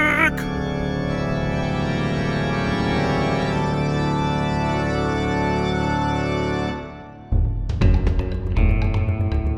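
Lush orchestral music from a stage musical swells steadily with rich sustained harmonies, then briefly fades near the end before a new, brighter passage with sharp accents bursts in.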